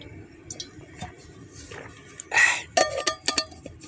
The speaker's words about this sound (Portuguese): Então vou aproveitar que eu esqueci e vou tomar outro gole de água porque tava tá começando a pegar esse calor. Só um pouquinho.